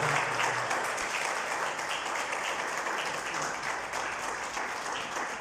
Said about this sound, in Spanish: Denle un aplauso a Cristo Jesús, por favor.